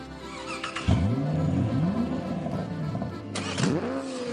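A car engine in a garage turns over and roars to life, revving up and settling, then a second start follows with another rising rev. Loud, no voices.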